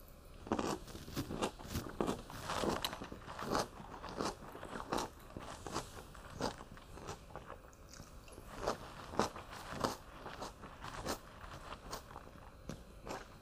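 Repeated wet, crisp crunches from biting into and chewing a pickle, loud and irregular in rhythm over about thirteen seconds, with no talking.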